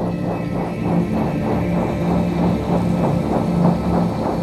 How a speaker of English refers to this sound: So the turndun esque sound is used to bring drive and intensity.